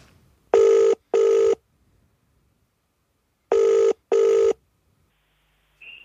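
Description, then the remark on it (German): A telephone ringback tone on an outgoing call to a race official: two double-burst rings separated by a pause, steady and fairly loud, with no one talking and a brief faint beep at the end. “mit dem werden wir jetzt einmal telefonieren.”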